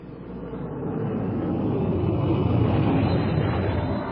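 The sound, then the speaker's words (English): A steady, roaring rumble of the spaceship Marathon Alpha jetting toward Barnum 5, swelling slightly at first and then holding a constant, loud drone with no voices. “The next morning, as Buddy and Ingrid jet toward Barnum 5 aboard the Marathon Alpha,”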